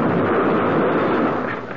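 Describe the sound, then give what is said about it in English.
A car with fleeing killers smacks into a police squad car coming out of a side street: one loud, dense roaring crunch that holds steady for under two seconds before easing off slightly at the end, with no voices. “They smacked right into the squad car.”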